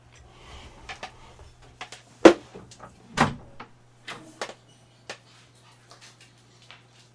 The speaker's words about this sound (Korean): 지금 문을 긁고 있는 건 아마 바나인 걸로. 네. 자, 잠깐 여러분의 네, 대답을 좀 듣는 동안에 네, 문을 잠깐 열어주고 오겠습니다.